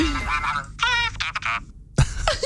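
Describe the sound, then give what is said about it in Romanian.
A quick run of nasal duck quacks, four or five in a row, played as a phone alarm tone, with people talking just before and after. “Eu vreau rațe dimineața, neapărat.”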